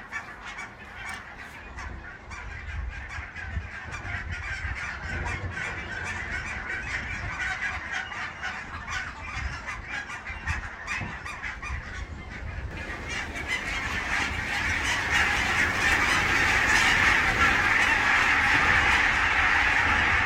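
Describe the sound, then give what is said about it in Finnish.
A huge flock of about 2,000 barnacle geese calls in a dense, constant chorus of yapping honks, growing louder and fuller near the end as the birds take off, with some wind noise beneath; recorded on a phone. “Tässä on se ehkä 2000 hanhea apauttia ralla ja ne pitää jo pelkästään niin kuin itsenään aika, aikamoista mekkalaa”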